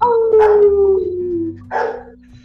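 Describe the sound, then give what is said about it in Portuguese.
A dog lets out a long, drawn-out howl that slowly falls in pitch, followed by a shorter whining yelp, fairly loud with no talking over it. “Até o cachorro concorda.”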